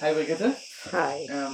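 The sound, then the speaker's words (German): Cicadas buzz steadily as a continuous high-pitched drone that never lets up during a live on-site interview in southern Crete, while two people exchange brief greetings over it. “Und entschuldigt die Tonqualität, denn im Gespräch waren wahnsinnig viele Zikaden zu hören.”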